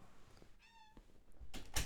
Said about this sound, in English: Oh, it's the cat. Okay.